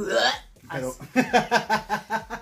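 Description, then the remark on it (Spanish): A voice imitates people coughing as if choking, like when a toothbrush is pushed too far back: a drawn-out retch, a short pause, then a rapid series of about six loud, rhythmic, hiccup-like heaves. “otras que les parece que les afecta la garganta porque eh, tú los escuchas tosiendo que se están ahogando, así como cuando te metes el cepillo dental que hace...”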